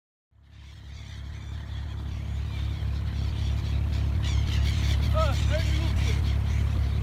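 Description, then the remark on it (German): The engine of a wooden ferry boat crossing Dubai Creek chugs in a steady low rumble, with a few faint cries from gulls circling the ferries breaking through briefly near the end. “Die Möwen umkreisen die tuckernden Holzfähren.”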